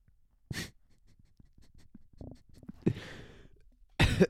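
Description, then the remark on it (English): A muffled burp rises out of quiet breathing and small mouth noises, framed by a couple of sharp breathy bursts. No talking. “I burped again.”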